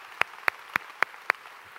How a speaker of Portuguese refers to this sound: Agora dê um aplauso a Ele, glorifique a Ele por ser Deus.